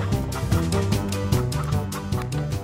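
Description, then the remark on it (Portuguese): A chicken clucks in a steady run of rapid, squawky bursts, fairly loud throughout, with no talking over it. “Tem que rolar alguma coisa ou eu pego a galinha?”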